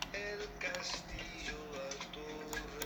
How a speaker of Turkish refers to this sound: Bok gibi klavye sesi geliyor biliyorum. Ama biraz daha yumuşak davranacağım bu konuda. Um, ben çünkü laptopu mesela şeye bağlıyorum ve hayvan gibi klavyeye vurarak çalışıyorum yazı konusunda.